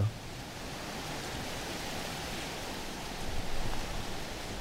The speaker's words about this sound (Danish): Hvis man kan høre, det suser lidt, så er det altså fordi, at det så småt trækker op til storm. Vi var nødt til at flytte os ned fra, øh, fra stranden ved Gedesby for lige at prøve at undvige den her storm lidt.